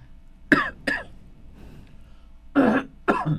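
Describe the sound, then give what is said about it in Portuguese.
Four sharp coughs come in two quick pairs separated by a short pause, as someone coughs into the upper arm, on the biceps between the shoulder and the elbow. No one speaks. “Então, tossir ou espirrar ali no bíceps, assim, na parte do, entre o ombro e o cotovelo, é uma maneira de”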